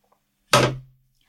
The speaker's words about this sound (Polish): Aż telefon mi spadł.